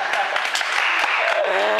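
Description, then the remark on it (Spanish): A short, steady burst of applause from several people, many claps blurring into a dense crackle, loud, with a voice briefly rising over it near the end. “¡Aplausos!”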